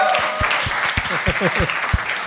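An audience applauds steadily with dense, continuous clapping, joined by scattered cheers and whoops rising above the noise throughout.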